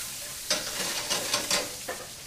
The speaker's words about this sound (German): Kohlrabi in Streifen schneiden, kurz in kochendes Salzwasser legen, bis drei zählen, und dann in eine Pfanne mit heißem Butterschmalz geben. Einmal scharf drin anbraten, eine Prise Zucker, Salz, Pfeffer, Muskatmehl dran, zwei, dreimal durchschwenken.